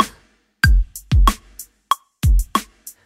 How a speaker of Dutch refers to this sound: En een hi-hat, hè.